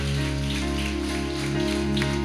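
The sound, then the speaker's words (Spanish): An audience applauds God in a dense, sustained wash of clapping that holds steady and loud throughout, with a low constant hum underneath and no one speaking. “Aleluya, dele un fuerte aplauso a nuestro Dios.”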